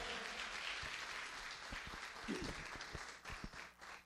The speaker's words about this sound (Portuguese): Aplauda o Senhor, gente.